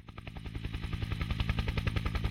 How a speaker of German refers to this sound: Sommer 2011. Ein mit Red Bull-Logos bedruckter Hubschrauber schießt durch die Berge Patagoniens im südlichsten Zipfel Chiles.